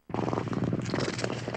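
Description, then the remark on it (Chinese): A person makes a throaty, cat-like purr in the throat, rumbling steadily for about a second and a half, a low, rough, fluttering drone that starts abruptly and holds a constant loudness, with no talking. “变得更粗、更低、更沙哑，胸膛迅速起伏不定，喉咙里发出猫一样的咕噜声。”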